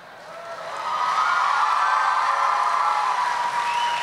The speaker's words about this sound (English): Let's have a big round of applause for all six of our uh, cosplay skits. Take a bow.